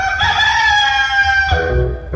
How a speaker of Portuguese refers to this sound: E mal o galo do Dejaci cantou, Tizio já tava em pé.